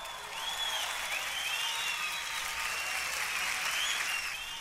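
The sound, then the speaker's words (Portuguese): Applause for the police of Ceará, Brazil, and its public security secretary: a crowd applauds steadily for the whole few seconds, dense clapping at an even loudness, with faint high whistling tones drifting over the noise and no talking. “Aplauso para a polícia cearense e aplauso para o secretário que fala sobre isso”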